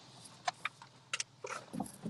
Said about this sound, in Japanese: 今日持ってきたんですよね。えー、箱。はい、ちょ今信号で止まってるので、えー、この間に箱から出しますけども。やばい、車の中でぶちまけてしまいましたが。